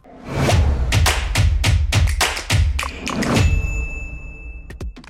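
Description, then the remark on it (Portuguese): A short intro jingle for Cafeína: a run of punchy, rhythmic thumps and taps at a quick steady pace, then a sustained high ringing tone with a couple of final hits, no voices. “Cafeína tá no ar, roda a vinheta.”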